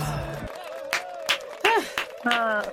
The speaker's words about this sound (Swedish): Varför applåderar du själv? För att det var så himla bra.